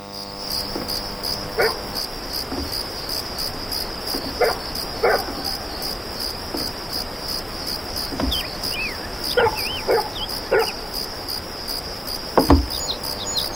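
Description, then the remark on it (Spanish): A dog barks in scattered single woofs, several over the stretch, against a steady chirping bed of crickets and insects, with a few faint bird calls and no talking. “Es un perro eso.”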